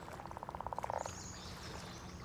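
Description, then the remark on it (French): A pickerel frog gives a short snoring call, a quick rattling series of pulses that speeds up and fades within about a second, over a steady low background of flowing water and faint birdsong. “entendez-vous plutôt le chant particulier de la grenouille des marais”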